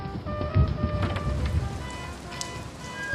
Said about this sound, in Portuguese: Eu venho descendo as escadas, ouvindo o barulho da chuva, tentando espiar por cima do ombro dos colegas que vinham na frente a quantidade de água que estava caindo.